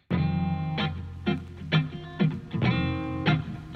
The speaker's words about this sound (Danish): Og øh, jeg synes altså lige, vi skal høre et nummer fra den her selv samme plade.